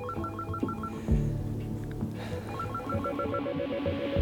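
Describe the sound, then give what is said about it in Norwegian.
A telephone rings with a repeating electronic warble, its trilling bursts coming again and again at a steady pace, fairly loud over a low, droning background. “Vi hadde de på døra, vi hadde de på telefon.”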